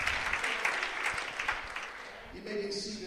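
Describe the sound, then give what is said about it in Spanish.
A church audience applauds the Lord in a dense, steady wash of clapping that thins out toward the end as a sustained tone and voices come in. “Alguien puede aplaudirle al Señor.”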